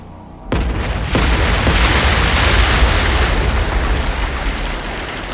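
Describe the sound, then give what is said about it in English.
A sudden, loud boom erupts after a brief quiet moment, then gives way to a sustained roaring rush of churning water as gigantic gray balloons on strings, about three times bigger than a hot air balloon, burst up one after another out of gray waters. “One behemoth balloon after the next exploded out of the gray waters all of them looking like they just escaped from some underwater circus.”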